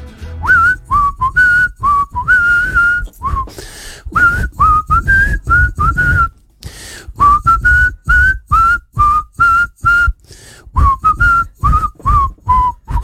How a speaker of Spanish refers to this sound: Estoy practicando. Sí, porque el silbido es no solamente pegarle la nota, es decir, ah, afinación,